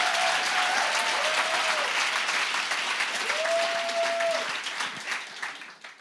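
A dense crowd applauding, a steady wash of many hands clapping that stays loud for several seconds, with a faint sustained tone in the background, before fading out at the end.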